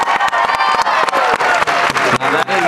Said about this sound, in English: That is a well-deserved clap